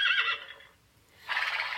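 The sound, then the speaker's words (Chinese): A horse whinnies in two loud, shrill bursts: a quavering neigh that fades out, a brief near-silent pause, then a second bright whinny starting up. No one speaks. “面见沙皇前，灰狼变身成了金鬃马。”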